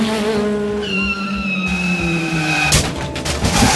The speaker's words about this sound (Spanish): Un momento, al niño no le pasó nada. El carro que lo iba a atropellar chocó dos metros antes contra una motocicleta. La motocicleta que nos perseguía.